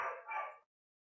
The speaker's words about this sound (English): I love that the I love that the hellhounds are in the background as we talk about talk about …. That's awesome. yeah, yeah, I don't. know. My dogs are going crazy downstairs.